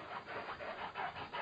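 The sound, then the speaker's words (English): A female dog makes a rhythmic, washboard-like rubbing noise: a steady run of raspy scrapes, fairly quiet, with no one talking. “I'm sorry, that's my dog.”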